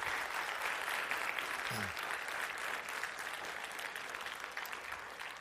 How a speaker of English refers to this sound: Uh, just clap. I think that was uh, worthy of praise of the Lord.